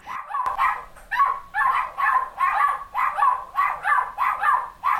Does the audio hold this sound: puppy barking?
yes